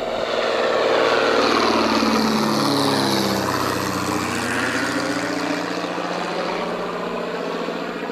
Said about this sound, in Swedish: jag klev upp i det smäckra planet, startade motorn och långsamt rullade fram till startbanan